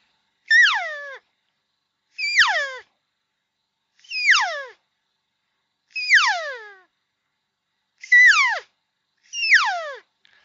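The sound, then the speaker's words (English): A person voices a predator call meant to draw in bears: six loud, high wailing squeals, each sliding sharply downward in pitch, repeated at a steady pace with short silences between. “You can tell me whether or not yeah. you think a bear would come in.”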